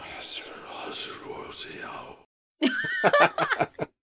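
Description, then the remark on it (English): Eerie, breathy whispering voices hiss and murmur for about two seconds, then a brief silence before a burst of louder, choppy voiced sounds. “you were starting to hear those whispers.”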